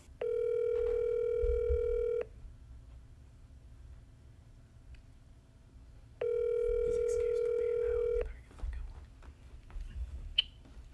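A phone line ringing on an outgoing call: two steady, buzzy ringback tones, each about two seconds long, separated by roughly four seconds of quiet over a low background hum.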